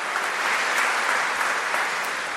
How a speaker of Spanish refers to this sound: Bueno, un aplauso a los delegados, ¿eh?